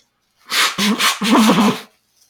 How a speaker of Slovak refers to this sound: Aj, sekundu mi daj, počkaj, musí sa iba vysmrkať, počúvajte. Vysmrkaj sa.